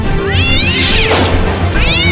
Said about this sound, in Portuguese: Lá vem o miau! Lá vem o miau!